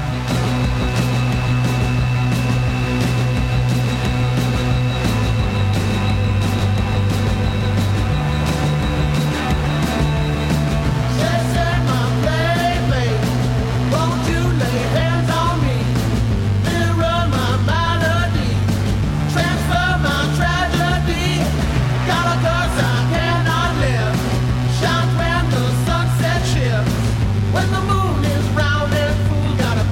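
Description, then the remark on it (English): A loud, driving rock song about a werewolf plays at full volume, with a pounding, shifting bass line and dense guitars; a wailing lead vocal comes in partway through and carries on over the band. “… with … on Sound Opinions.”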